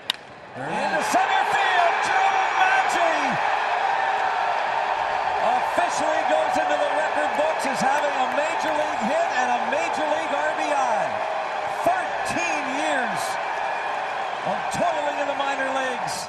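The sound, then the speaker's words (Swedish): A baseball home crowd cheers loudly after a single up the middle drives in a run to make it 13-0, a steady, dense roar that holds for the whole stretch, with scattered shouts, whoops and rising voices poking through the din. “Att hemmapubliken jublar sådär högt är eh, inte så vanligt när man leder med 12-0 i en match eh, bara för en singel upp i mitten som visserligen driver in en run eh, för att göra det 13-0,”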